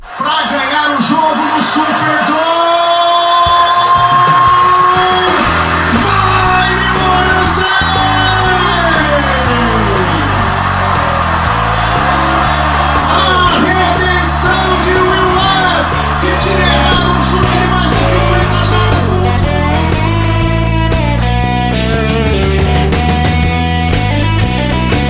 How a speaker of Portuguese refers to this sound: Aqui é tremedeira e gritaria.